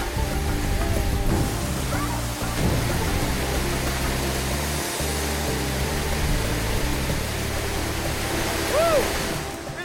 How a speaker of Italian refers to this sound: C'è una tale forza sotto quella cascata. Non la si può apprezzare finché non si sta proprio sotto. Ed è lo stesso potere che alimentava l'impero Khmer. È assolutamente fantastico.